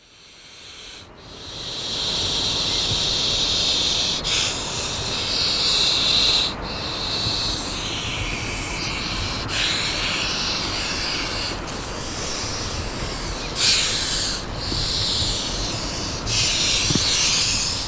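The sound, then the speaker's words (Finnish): A European adder hisses about 10 centimetres from the microphone, lowered on its cable as near the snake as possible: a series of long, breathy hisses, each running several seconds with brief breaks between them, steady and fairly loud with no voices. “jos vähän suhautettaisiin kyytä”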